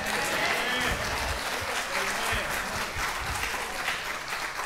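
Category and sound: crowd, audience clapping and shouting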